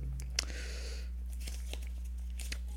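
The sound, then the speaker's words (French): Quiet crinkling as a small drawn slip of paper is unfolded: a brief rustle followed by a few soft, scattered paper crackles, with no talking. “Donc je vais tirer un, un petit papier.”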